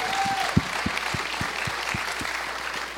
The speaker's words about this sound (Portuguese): Pode aplaudir.